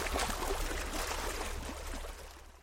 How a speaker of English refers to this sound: Splash! The white foam rushed around their legs.